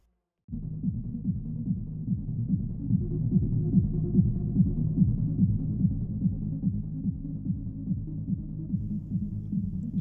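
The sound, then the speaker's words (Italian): Deep, muffled bass thumps from a club speaker pound in a steady, fast rhythm on a dance floor, heard from right under the speaker, continuous and fairly loud with no voices. “l'ha portato sotto cassa, sente perfettamente, tutte le vibrazioni gli arrivano chiare e distinte e inizia a ballare.”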